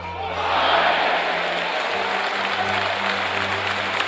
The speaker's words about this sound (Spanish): Fuerte ovación para la peña alemana Borussia.